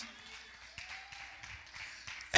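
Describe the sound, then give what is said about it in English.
An audience claps their hands during an evening sermon, a soft, steady patter of many hands mingling together, swelling slightly in waves before a sharp, louder burst at the very end. “Clap your hands and love him if you wor- if you believe what I'm preaching tonight.”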